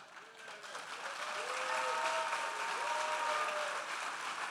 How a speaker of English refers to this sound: How many have heard when you go to a graduation, hold your applause till everyone is finished? Everyone gets their diploma. This is what I want you to do. Do not hold your applause.